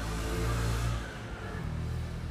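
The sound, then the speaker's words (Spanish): A motorcycle engine rumbles outside, heard from a balcony, with a low, steady drone that dips briefly and then holds, fairly loud, with no one speaking. “Por ejemplo, yo siempre atraigo el sonido de una moto para un podcast.”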